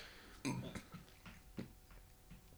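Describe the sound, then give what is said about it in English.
A single throaty burp rumbles out near the start, followed by a few softer croaking gulps and hiccup-like catches, with no talking. “Yo, it, we burp often. We do.”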